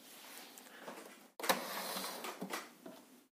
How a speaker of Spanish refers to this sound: Voy a mover un toque la impresora acá. Cosa acá.